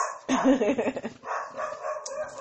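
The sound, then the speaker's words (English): A dog named Toby barks upstairs in a quick run of sharp, overlapping yaps, then carries on more softly and unevenly, sounding somewhat muffled, as he protects the house. “Y'all hear Toby up there? He's protecting the house.”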